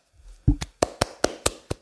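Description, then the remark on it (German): A single person claps their hands about seven times in a quick, slightly uneven rhythm. The claps are sharp, with no talking around them. “die hat für dich geklatscht.”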